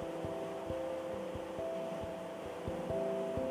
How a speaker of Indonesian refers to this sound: Tapi maaf aja, kalau suaranya agak agak-agak jelas karena hujan di belakang.